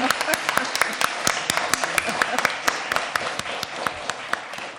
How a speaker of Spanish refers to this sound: aplauso por favor.